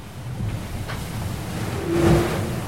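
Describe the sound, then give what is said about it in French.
A sailboat speeds through choppy water as the sun comes out, with a steady low rumble of hull and wind and a louder surge of splashing spray near the end. “Et puis le bateau, il file on dirait un animal qui, je pas, qui galope sur les vagues.”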